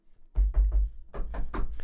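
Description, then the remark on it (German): Three quick knocks on a wooden surface in a fast even rhythm, followed by a few lighter, sharper taps. No one speaks. “die klopft dann immer dreimal auf Holz, aber so ganz schnell.”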